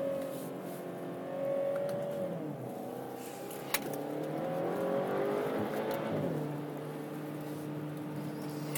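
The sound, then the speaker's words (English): A V8 sports car engine revs up and down through the corkscrew turn at Laguna, its pitch sweeping and dropping sharply twice with gear changes, loud, with no one talking. “This engine is just full, just full of all sorts of sounds that are very different, very foreign to what you expect out of an M car.”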